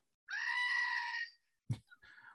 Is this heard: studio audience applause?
no